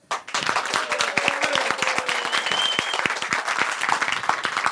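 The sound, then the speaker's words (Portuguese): An audience applauds Palmeiras and goalkeeper Emerson Leão, dense overlapping claps sustained for several seconds with faint whistles or cheers mixed in. “Uma salva de palmas ao Palmeiras e a Emerson de Leão.”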